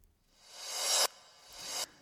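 Two reversed transition swells of airy noise sent to a chamber reverb, each rising steadily in loudness before cutting off abruptly; the first is longer and louder, with no voices present.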